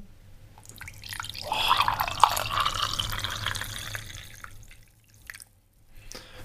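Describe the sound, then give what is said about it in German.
Tea pours steadily into a cup for about three seconds, nearly overfilling it, a bright trickling splash that swells, holds, then tapers off, followed by a few faint clinks and drips. “fast zu viel eingeschüttet, weil ich nicht genug von dem Ton bekommen konnte.”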